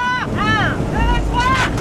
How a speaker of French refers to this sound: L'alerte est déclenchée pour les gendarmes maritimes et les fusillés marins. Ils embarquent à bord d'un Zodiac noir et foncent à toute allure devancer le bateau.